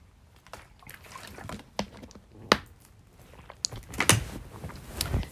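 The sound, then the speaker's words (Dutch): Someone takes a sip of water early in the morning, at about 6:40: faint rustling and handling, a few sharp clicks of a bottle or glass, and soft sipping sounds, with no talking. “Laat me even een slok water nemen, want ik ben net wakker.”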